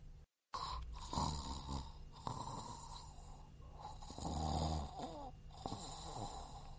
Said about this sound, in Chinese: 哈哈，呼噜声真的变小了。嗯，我知道了，一定是冰箱装的太满了，才会打呼噜的。